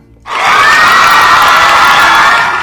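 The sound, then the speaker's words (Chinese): A sudden burst of audience applause and cheering, played as a sound effect from an app, starts after a brief quiet moment, then holds loud and steady as a dense wash of clapping and shouts with no speech. “啊，听到了，有掌声啊。”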